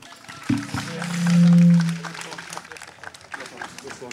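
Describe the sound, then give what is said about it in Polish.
An audience applauds in a steady, dense patter of clapping throughout, while a loud low droning tone swells and fades in the first half; the applause welcomes a director onto the stage at the Green Festival. “I może zachęćmy go oklaskami.”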